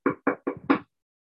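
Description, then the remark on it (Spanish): Four quick, evenly spaced, sharp knocks on a door, the last one a little louder, followed by silence. “El pecado, Toca la puerta.”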